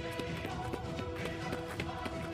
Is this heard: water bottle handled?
no